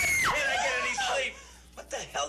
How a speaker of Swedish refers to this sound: En false jump scare. arg läkare som låg där och sov. Hoppar upp och skriker.